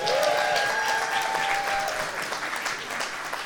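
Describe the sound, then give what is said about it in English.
An audience applauds in honor of a mother on Mother's Day, with dense, steady clapping that holds at an even level for several seconds, with a faint whistle-like tone riding over the start. “So, um, can we just give my mom a big round of applause?”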